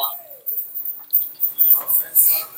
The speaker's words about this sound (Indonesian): Oh, burung, burung, burung, Burung.